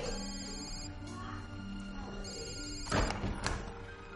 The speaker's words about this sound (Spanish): El inspector le espera fuera del retrete. Suena su móvil.